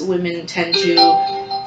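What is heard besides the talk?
phone notification chime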